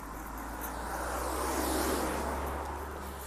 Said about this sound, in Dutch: oh ja, auto's. Sorry voor de herrie wandel naar een wandelpad waar geen auto's rijden.